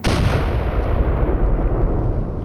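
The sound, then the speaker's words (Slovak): A loud cartridge explosion erupts as a vise clamped too tightly on the cartridge presses its primer and sets it off, its heavy blast rolling into a dense, rumbling roar that fills the whole couple of seconds without letup. No voices are heard. “Výbuch rozmetal všetko naokolo, ale najviac zasiahol plameň tvár, krk a ruky”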